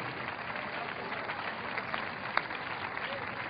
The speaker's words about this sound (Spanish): Cuando aplauda, diga, el aplauso es para ti, Jesucristo.